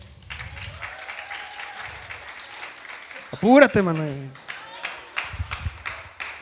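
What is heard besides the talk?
audience applauding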